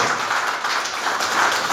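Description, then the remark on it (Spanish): A crowd applauds the Lord during a sermon, a dense wash of many hands clapping at once with no single claps standing out, holding an even, fairly loud level throughout and no voices on top. “Denle el aplauso al Señor, por favor.”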